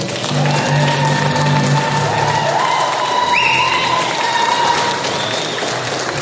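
Steady, loud applause with cheering voices in response to a joke runs unbroken for the whole clip, a dense crackle of clapping mixed with sustained shouts and a few high whistle-like tones.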